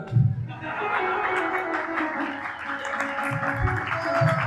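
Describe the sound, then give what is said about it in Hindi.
Loud, sustained applause from an audience during a religious story recital (katha), clapped loudly as a signal to move on with the story, dense and steady throughout with a few heavier low thumps, and no clear voices above the clapping. “ताली को जोर से इसलिए बजाई जा रही है कि अब आगे इस कथा से आगे बढ़ो”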